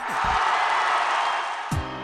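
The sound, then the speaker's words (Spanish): A steady wash of crowd applause and cheering fills the whole two seconds, dense and fairly loud, with a couple of brief voiced shouts rising out of it near the start and end. “Aplausos.”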